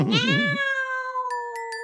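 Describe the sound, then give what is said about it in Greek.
A single drawn-out meow from a cat named Paspartou, loud, starting with a wavering rise and then holding a steady whining pitch, with a few faint tinkling clicks near the end. “Ο Πασπαρτού ό,τι θυμάται νιαουρίζει.”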